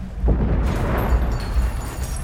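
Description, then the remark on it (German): A loud, booming explosion below deck on a ship, where fire breaks out in the dining room, bursts out and rumbles on, followed by a crackling scatter of debris and faint bright tinkling like breaking glass as a porthole is blown out. No one speaks. “Es hört sich an wie eine Explosion, gefolgt von zerbrechendem Glas.”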